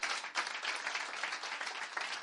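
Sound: audience applauding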